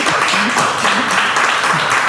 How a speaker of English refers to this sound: Come on, you clap for it.